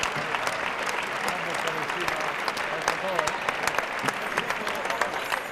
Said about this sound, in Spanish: Bueno, pues hay palmas a la voluntad de Roca Rey que se ha estrellado literalmente.